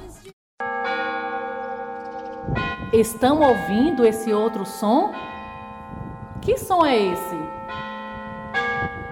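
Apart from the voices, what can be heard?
church bell ringing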